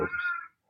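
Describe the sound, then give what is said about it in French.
A single meow from a hungry cat, short, followed by a brief faint trailing cry before it falls silent; no voices are heard. “Ah, on entend un chat.”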